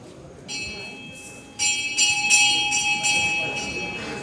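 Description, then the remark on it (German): A bell rings repeatedly with a bright, sustained metallic tone, its strikes overlapping into a shimmering ring that builds in loudness, heard fairly close in a large hall. “Als die Glocke läutet, öffnen sich am Ende des weitläufigen Saales drei kleine spitze Fenster, eine Art Ausschank.”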